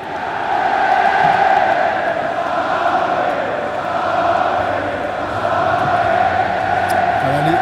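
Irish football supporters among 80,000 spectators at the Stade de France sing a famous song together in unison, a dense, loud, sustained wall of voices with a swaying melodic rise and fall, stadium-scale chanting filling the whole stretch.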